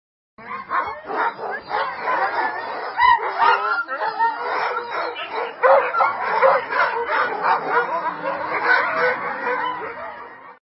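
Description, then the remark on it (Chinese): A chorus of many dogs barking over one another from not far away, yips and howl-like cries overlapping in a dense, continuous racket that rises and falls for about ten seconds with no talking. “似乎是要印证小蛙的说法，不远处果然传来此起彼伏的狗叫声。”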